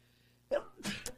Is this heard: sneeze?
yes